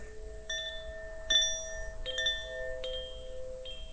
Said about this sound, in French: Mais par exemple, tu peux utiliser un, instrument euh, un instrument très simple, un carillon. Euh, je t'en ai déjà parlé, un de mes carillons, mais je t'en reparle. Euh, carillon de la marque Koshi, K-O-S-H-I. Écoute ça.